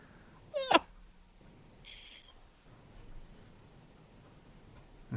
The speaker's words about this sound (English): Bad kitty. Meow meow.